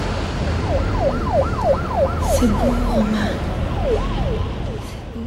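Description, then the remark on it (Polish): A wailing siren sweeps rapidly up and down over a dense, rumbling city street backdrop, sounding filtered and processed, with a low engine-like drone beneath and no talking. “Tutaj na poziomie mm, dźwiękowym muzyka jest e, rzeczywiście taka industrialna, ale na poziomie dźwiękowym też mamy odgłosy mm, miasta w jakiś sposób przetworzone.”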